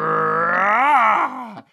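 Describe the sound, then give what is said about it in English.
A single man's voice holds a loud, sustained tone for under two seconds, climbing slightly in pitch before wavering and trailing off, vocally imitating an upward-sloping economic supply curve that rises as price increases. “just this once, we're going to do an audio chart with our voices”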